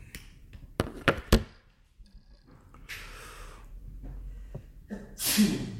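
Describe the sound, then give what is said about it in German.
A single sharp, breathy sneeze bursts out near the end, preceded by a few soft clicks and a short hiss of breath, with no talking. “Gesundheit.”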